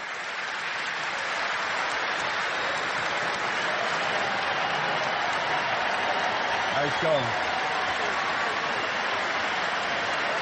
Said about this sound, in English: Big round of applause here from everybody at the ballpark. Jerry Reinsdorf at the microphone. We're celebrating Mark Buehrle Day.